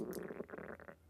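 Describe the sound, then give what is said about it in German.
A low, gurgling stomach rumble from a person who has not yet eaten rolls on for about a second, soft, with bubbly pulses and no talking over it. “Das ist mein Magen, muss man.”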